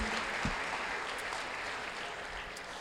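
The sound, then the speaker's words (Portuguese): An audience applauds the Lord Jesus at a morning service, a dense, even wash of many hands clapping at a fairly loud, constant level with no one speaking over it. “Você pode aplaudir o Senhor Jesus aí?”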